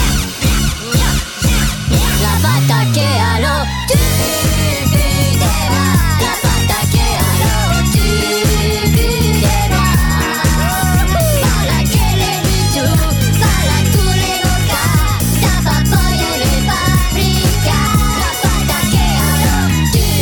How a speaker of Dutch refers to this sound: Maar er is ook een versie van de Minions en die klinkt zo.